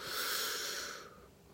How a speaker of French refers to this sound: On respire lentement, on bloque et on expire encore plus lentement.